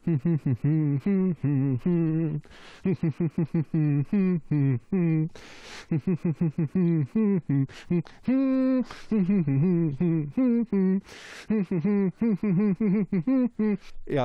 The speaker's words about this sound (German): So, so habe ich am Montagabend gesummt und du kannst jetzt mal und ihr da draußen auch mal überlegen, was für ein Lied könnte ich gemeint haben.